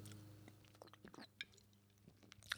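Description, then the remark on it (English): Someone sips beer: quiet, wet mouth clicks and gulping sounds scattered over a couple of seconds, with a sharper click near the end, against a low steady hum and no talking. “But and I'm drawing a blank, so we're just going to take a sip of beer for just a moment.”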